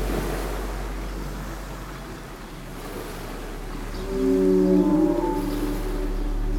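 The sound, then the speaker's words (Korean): Steady ocean waves wash and hiss with a low, rolling rumble underneath, a continuous surf bed with no talking, while a faint drawn-out moaning call of singing whales, heard from far away, rises briefly partway through. “내 몸을 흔드는 잔파도에 몸을 맡기고 이곳에 그저 존재해 보세요.”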